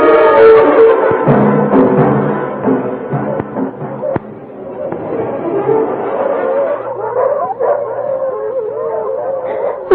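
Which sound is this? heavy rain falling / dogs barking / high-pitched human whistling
dogs barking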